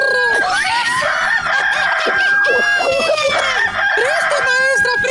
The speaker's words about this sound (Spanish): Déjame hablar del gallo de Oaxaca.